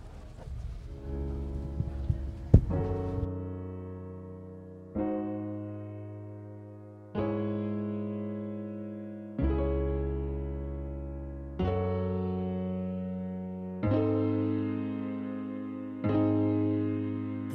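A rap song's intro plays: slow, sustained synth chords swell in and change every two seconds or so, with no drums or vocals yet, at a steady moderate volume.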